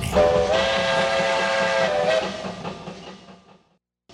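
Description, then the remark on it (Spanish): A loud steam train whistle blows in a sustained, harmonic-rich blast for about two seconds, then fades away with rumbling undertones until silence. No one speaks. “Usted escucha el tren.”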